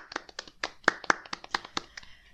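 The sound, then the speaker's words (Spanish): Applause from a small group: a quick, uneven run of sharp hand claps, about a dozen distinct slaps over two seconds, moderately loud with a few especially crisp peaks, no voices. “Aplauso para nosotros, por, favor.”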